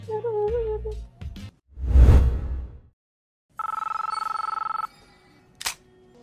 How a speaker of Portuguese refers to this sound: Aí toca o telefone.